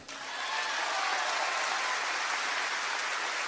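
A sustained burst of audience applause, dense and steady, with many hands clapping together into a broad, hissy wash that swells quickly and holds for several seconds.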